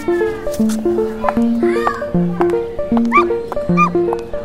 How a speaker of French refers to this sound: Aboiement et rigolade